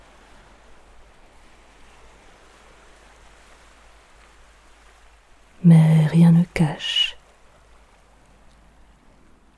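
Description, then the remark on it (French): Gentle waves of an ebbing tide at a low tidal coefficient lap softly in a steady, low wash throughout, faint and unbroken, in a small cove enclosed by cliffs with no wind and no swell, while a voice speaks briefly midway over them. “rien ne gâche le doux bruit du reflux petit coefficient.”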